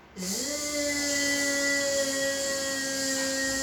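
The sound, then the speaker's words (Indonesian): A voice imitates a bee as practice for a letter sound, with a long, steady buzzing "zzz" that rises slightly at the start, then holds one hissy, vibrating pitch loudly for over three seconds without any words. “Bunyiin uh, suara lebah.”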